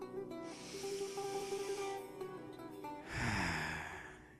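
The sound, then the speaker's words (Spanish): A long, deep breath drawn in through the nose during a guided breathing exercise, a steady airy rush lasting a few seconds, clear, followed by a fuller release of air, with no one speaking. “Da una inhalación profunda.”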